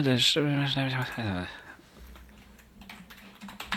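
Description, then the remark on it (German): A brief voiced sound opens, then quiet typing on a computer keyboard follows: a short, irregular run of soft key clicks until the end. “Warte mal, sonst muss ich kurz nochmal tippen.”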